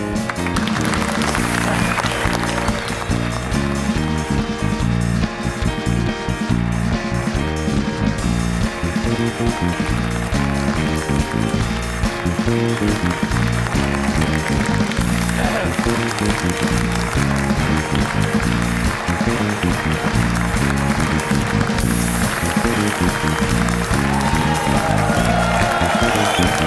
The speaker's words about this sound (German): Mein Applaus hier.